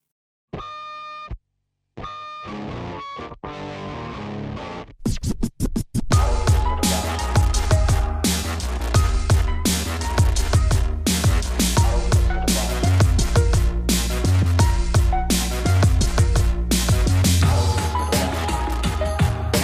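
A K-pop hip-hop track plays loudly: a sparse, stuttering intro of sharp synth stabs breaks off, then a heavy, bass-driven beat kicks in and drives steadily to the end.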